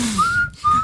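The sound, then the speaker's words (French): Someone whistles a short snake-charmer flute tune, two sustained wavering notes split by a brief pause, fairly loud over a low background rumble. “Il joue de la flûte, il ça c'est un cobra.”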